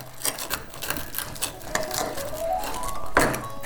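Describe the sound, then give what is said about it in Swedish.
Crisp, crackling crunches from biting into a chanterelle sandwich, a steady run of sharp irregular snaps at moderate loudness with a stronger crunch near the end, and no talking. “Ni hör vad det knastrar här.”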